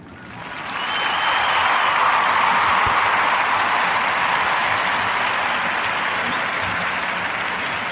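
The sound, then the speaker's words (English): A crowd breaks into sustained applause for a group of young women, many hands clapping in a dense, steady wash that swells within the first second and holds loud and even to the end, with no voices standing out. “So join me in two giving a warm narrative podcast round of applause to these young ladies.”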